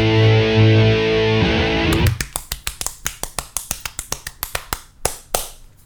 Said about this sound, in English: If you can hear the tribal drums in the background, that's Tuscan getting ready for another episode of Idiots with Opinions.